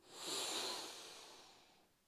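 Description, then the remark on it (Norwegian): A long, deep breath drawn in through the nose during a guided relaxation exercise, soft, with an airy hiss that swells quickly and then slowly fades over about two seconds. No talking. “Pust godt inn med nesa,”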